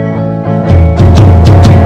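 A song begins with sustained, droning instrumental tones, then a full band kicks in with loud, steady drum hits in a driving rhythm. It's close and prominent, with no talking.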